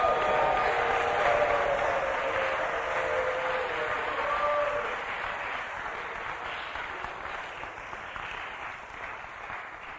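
A standing crowd claps and shouts together to the Lord in a dense, sustained roar of applause and raised voices, loudest at first and easing slightly midway through.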